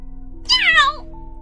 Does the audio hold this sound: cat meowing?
yes